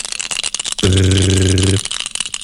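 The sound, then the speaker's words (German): A newly bought die rattles and clatters in quick, busy clicks, briefly interrupted by a steady, loud low buzzing tone lasting about a second before the rattling resumes. No one speaks. “Ich habe hab den neuen Würfel gekauft.”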